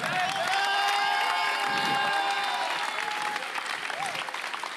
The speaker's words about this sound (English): Come on, clap up there. Hajde, hajde, hajde, gore. Искам да ви чуя.